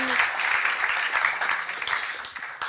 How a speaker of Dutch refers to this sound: Um, geef ze een geweldig eh, applaus.